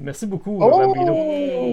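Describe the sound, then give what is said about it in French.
A man speaks briefly, then a dog's high, drawn-out whimper cuts in, rising slightly and then sliding slowly downward as it fades, fairly loud. “On dirait que c'est le chien.”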